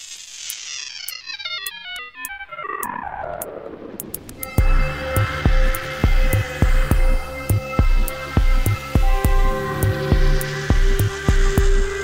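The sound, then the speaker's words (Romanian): Smooth synth tones cascade downward alone for a few seconds, then a steady electronic beat with punchy kicks and sustained chords kicks in, giving a full, upbeat synth-pop groove. “Piesa începe cu sunete sintetice line și progresează într-un aranjament complex cu un beat bine definit și cu acorduri distincte”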